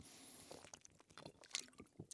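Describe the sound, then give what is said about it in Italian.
A quiet sip of water with soft wet mouth clicks and a gulp, several small irregular sounds over about two seconds, with no talking. “scusate, eh, ho bevuto un goccio d'acqua”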